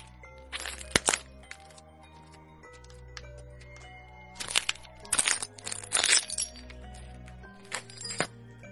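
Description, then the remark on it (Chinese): Footsteps crunch over broken glass strewn across a main entrance as someone walks out, sharp crackling clusters with bright tinkling shards, one burst early, then several heavier steps in a row near the middle, and a couple of lighter crunches at the end. “说完，他头也不回，踩着大门口一地的碎玻璃走了出去。”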